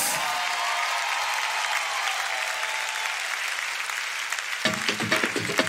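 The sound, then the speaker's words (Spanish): An audience applauds Jesus loudly, a dense wash of clapping from many hands, with faint crowd noise and a few voices rising near the end. “Apláudele fuerte a Jesús, vamos.”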